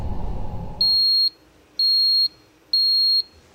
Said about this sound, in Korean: 알람이 또 울리는 겁니다.